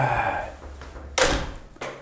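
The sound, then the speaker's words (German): A door swings shut with a solid thud, locking the speaker out, followed moments later by a second, softer latch-like knock; no one speaks. “Ah, jetzt habe ich mich ausgeschlossen, ich tippe.”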